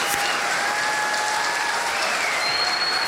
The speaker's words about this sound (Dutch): Even applaus. Hup, Albert Heijn. Ja, echt heel erg goed.